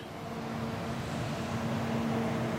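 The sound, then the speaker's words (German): A steady, continuous rumble of cars on a federal highway with a low engine hum, swelling slightly as vehicles pass; no voices. “Die Autos fahren hinter mir auf der Bundesstraße und vor mir, der Blick, der passt überhaupt nicht zu dem, was wir gerade hören.”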